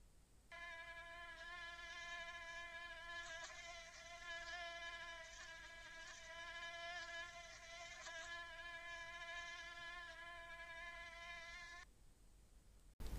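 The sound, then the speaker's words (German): A thin, high-pitched whine of mosquitoes hums steadily for about eleven seconds, its pitch wavering slightly, with no voices. “Das Sirren der Mücken, das ist ganz bestimmt der hellste und höchste Ton im Wiesenkonzert.”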